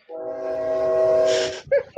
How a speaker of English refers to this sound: Have the uh, the Chico train is going to come by and shake my house right at the start.